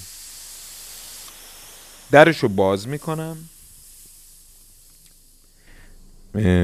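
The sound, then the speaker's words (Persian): A steady, airy hiss of steam escaping from a pressure cooker cooking meat fills the opening seconds, then fades as a person speaks; the faint hiss lingers softly under the talk. “خب صدای پز من در اومده”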